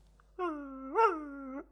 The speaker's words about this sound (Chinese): 就在那一片安静之中，水清听到很模糊、很模糊的狗狗的叫声，那是坨坨的叫声。